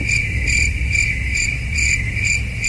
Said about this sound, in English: The crickets. Ah, but uh, well, I, I hope it works on your end because I can't hear it.